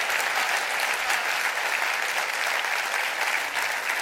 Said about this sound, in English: Clap your hands and rejoice to that. I believe that.